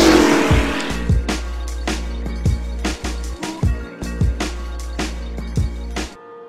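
A car engine cranks and starts, then settles into a loud, low rumble with a series of quick, punchy revs at a fairly steady rhythm, cutting off abruptly near the end.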